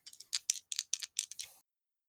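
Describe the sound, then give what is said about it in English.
Two dice clatter and tumble across a hard surface in a quick burst of sharp, bright clicks lasting about a second and a half, then stop. Fairly quiet, with no talking. “People people hate when you roll on like a Roll20. They want to hear that good shit.”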